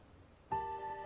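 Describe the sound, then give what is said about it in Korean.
After a half second of near silence, a steady electronic telephone tone cuts in abruptly, a flat buzzing note that holds clearly and evenly to the end, the tone heard when a phone call suddenly cuts off. “무섭고 걱정돼서 그러다 전화가 뚝 끊겼습니다.”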